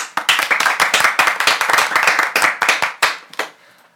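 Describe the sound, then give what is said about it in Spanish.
A short burst of applause from a small group welcoming guests, rapid overlapping claps that stay fairly loud, then thin out and fade over the last half second. “Estos son los chavos de Fondo a la Derecha. Bienvenidos, un aplauso.”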